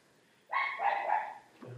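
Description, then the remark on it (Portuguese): A dog lets out a single drawn-out, slightly whiny bark, lasting about a second, with the start of another low sound at the very end and no one talking. “Participação Bom. especial do cachorro.”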